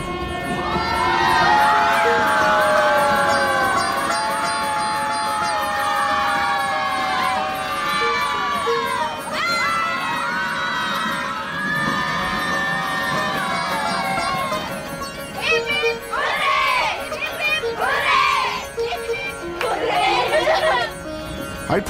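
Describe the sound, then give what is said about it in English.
A crowd of uniformed schoolchildren on a train cheers and shouts loudly in unison as the train passes through a tunnel, in sustained, high-pitched bursts with rising and falling whoops over a steady rumble of train noise. “The school kids in their uniforms cheer in unison every time we pass through one of the tunnels.”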